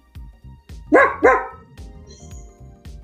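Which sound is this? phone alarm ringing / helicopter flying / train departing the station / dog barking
dog barking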